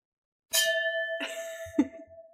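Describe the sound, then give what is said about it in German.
Glasses of alcohol-free sparkling wine clink together three times in a toast, each bright strike leaving a clear ringing tone that sustains between hits. Fairly loud, with no talking. “Aber vielleicht, vielleicht sagen wir den Leuten, na gut, stoßen wir erst an.”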